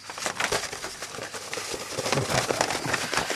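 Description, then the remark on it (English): Continuous crinkly paper rustling and crackling, fairly loud, with scattered sharp crisp snaps as a large paper poster is rolled up; no voices. “I'm now going to roll up the poster. It's going to make a noise.”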